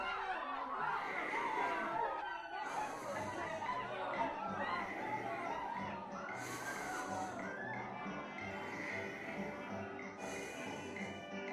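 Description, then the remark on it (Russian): A steady, muffled murmur of many voices from distant dormitory neighbours, heard in a silent room, with occasional louder calls rising out of the continuous background din. “Тишина в комнате такая, что слышен шум, доносящийся от каких-то далеких соседей по общежитию.”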